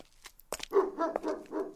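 A dog gives a short run of fairly loud barks and yelps, several quick vocal bursts in a row with no talking over them; a dog out on a walk at midnight on 5 May 1999 in Barèges, a spa town in the Hautes-Pyrénées at the foot of the Tourmalet.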